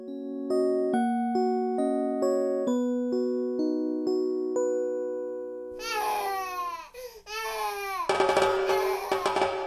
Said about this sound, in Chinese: 一段优美催眠式的旋律之后，被婴儿的啼哭声打破，使歌曲带有俏皮的味道。